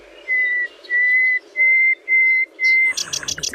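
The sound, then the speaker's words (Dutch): A caged nightingale, its hatch opened, sings five long, pure whistled notes at an even, unhurried pace, then breaks into a quick burst of harsher, rattling notes; clear and alone. “Hoor Misschien een beetje een atypische nachtegaal.”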